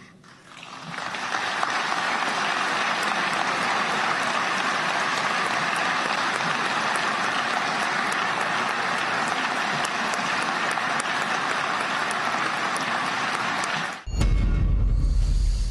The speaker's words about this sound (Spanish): largo aplauso